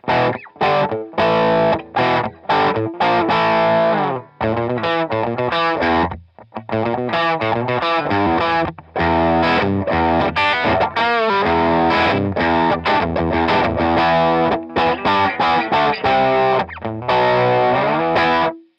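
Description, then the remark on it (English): Distorted electric guitar riffs play loud and alone, a string of choppy, rhythmic phrases with brief gaps between them and dense, gritty harmonics ringing through. “And if you're thinking of an unbelievably awesome guitar thing in your head right now, you're probably thinking of a riff.”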